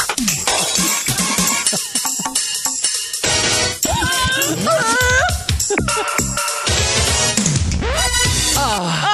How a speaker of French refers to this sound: Il y a comme une voiture qui freine. Oui. Il y a la vitre qui se casse. La vaisselle.